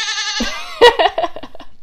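A goat lets out a loud, wavering bleat, then breaks into a few short, choppy bleats in quick succession, clear with no talking over it.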